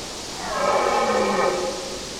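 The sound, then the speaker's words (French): A moose on a vast plain in Sweden in cool winter weather gives a single drawn-out, groaning call, a loud low bellow with a rich harmonic tone that swells and fades over about a second and a half against a faint background hiss. “Un grognement très sonore. Ça doit être une grosse bestiole.”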